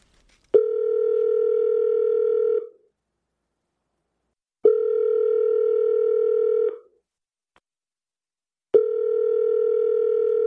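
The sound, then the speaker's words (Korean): Three steady electronic ringback tones on an outgoing phone call to a man named Denny, each lasting about two seconds with pauses between, clear and fairly loud, going unanswered with no voices. “나는 수도 없이 데니에게 전화를 걸었다. 데니는 받지 않았다.”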